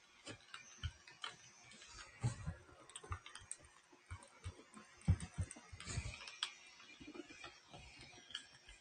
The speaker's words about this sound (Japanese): ちょっとパソコンうるさくなっちゃったな。